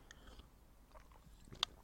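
sipping water

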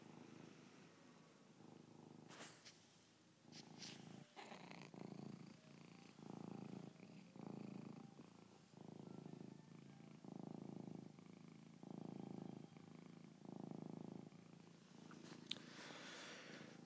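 cat purring

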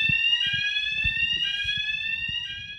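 fire alarm ringing

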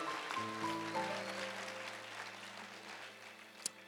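audience clapping

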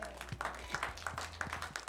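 audience clapping

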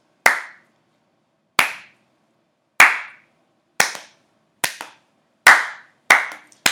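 slow clap

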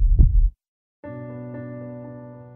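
heartbeat sound effect

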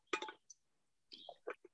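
glass clinking

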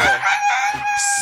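rooster crowing

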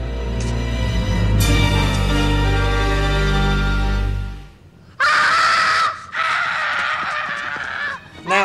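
child screaming

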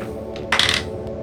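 two dice being rolled

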